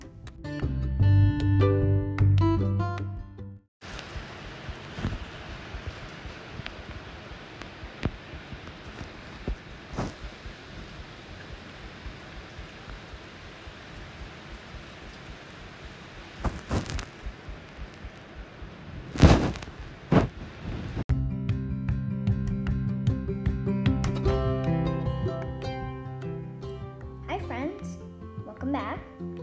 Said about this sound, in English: Well, here's the answer that was the sound of rain hitting the top of our roof.